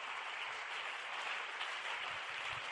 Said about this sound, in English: Can you rise up to your feet and give God a better praise right now? Your clapping is sick.